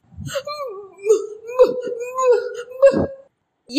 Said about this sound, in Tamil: என்று அமுதனுடைய அன்னை இடைவிடாமல் அலறினாள்